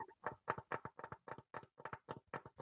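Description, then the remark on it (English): A makeshift drum roll tapped out with hands: a quick, steady run of about a dozen soft slaps, evenly spaced and with no voices. “This is I'm the worst ASMR drum roll ever.”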